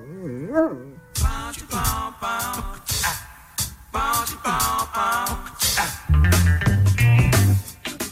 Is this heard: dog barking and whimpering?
yes